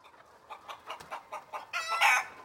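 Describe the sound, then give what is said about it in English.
A rooster crows: a run of quick, evenly spaced clucks builds into a loud, drawn-out harmonic crow at the end, with no voices present. “What came first, the chicken or the egg?”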